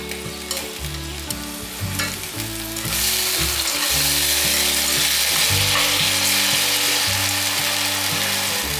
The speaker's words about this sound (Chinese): 把香料炒匀，炒匀后可以把杏鲍菇放进来。先用筷子让杏鲍菇都沾到酱汁